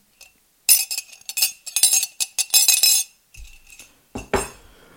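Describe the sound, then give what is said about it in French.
A spoon clinks rapidly and repeatedly against the inside of a mug that held spiced black tea, bright ringing taps for a couple of seconds, followed by a few duller knocks and a short scrape as it settles. “Donc je peux juste vous faire écouter le tintement de la cuillère dans le mug.”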